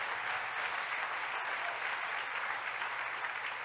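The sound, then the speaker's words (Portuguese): A large audience claps steadily and loudly for all the pastors of the team, a dense continuous wash of applause for several seconds with no voices standing out. “Eu gostaria também que você pudesse dar bem forte uma salva de palmas para todos os pastores da nossa equipe.”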